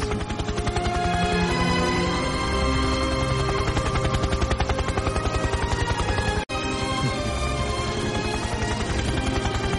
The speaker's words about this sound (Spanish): Tranquilo, Manchi, tranquilo, no te asustes. El helicóptero no viene por ti, Manchis, tranquilidad.